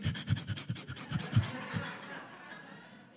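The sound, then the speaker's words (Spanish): A person imitates heavy, labored panting, with a quick run of rhythmic, breathy gasps for about a second and a half before trailing into a softer, drawn-out exhale, fairly loud. “Es que hay gente que ni puede respirar, respira así.”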